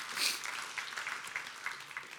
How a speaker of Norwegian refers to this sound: Skal vi ikke bare gi Jesus en klapp? Der? Skal vi ikke bare si tusen takk, Jesus?